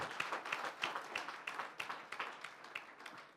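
An audience applauding in praise to the Lord: many hands clapping together in a dense, steady patter with loose rhythmic peaks, fairly soft, lasting a few seconds with no voices over it.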